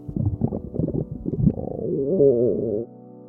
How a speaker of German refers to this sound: Wenn der Magen ganz laut knurrt, dann ist das wohl das deutlichste Signal für eins: Hunger.